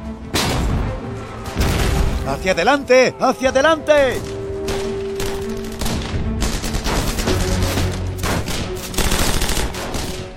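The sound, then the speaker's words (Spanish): Continuous battlefield gunfire with rapid bursts and heavy booms of artillery, dense and loud throughout, while a man shouts commands over the din as Company D advances along a road after the Allies' first wave of fire. “La compañía D avanza por la carretera tras la primera ola de disparos de los aliados.”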